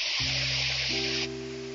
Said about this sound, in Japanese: 海があって、すごく大きな波が何でも何でも押し寄せている